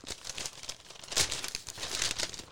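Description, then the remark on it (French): Newspaper pages rustle and crinkle as someone deliberately makes noise with them for a couple of seconds, a dense, crackling scratch of paper with a sharper crunch midway and no voices. “J'aime bien faire du bruit avec mes journaux.”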